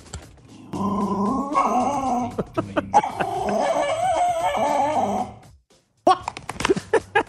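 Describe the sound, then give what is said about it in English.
A small dog, angry at getting a Tic Tac instead of a Big Mac, lets out long, wavering howls mixed with sharp barks and yelps. The sounds are loud and break off briefly before a few more agitated barks return. “This is called Dog Gets Ripped Off here.”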